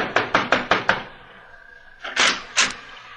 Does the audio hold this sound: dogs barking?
no